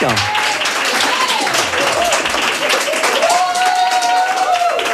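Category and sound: crowd, audience applauding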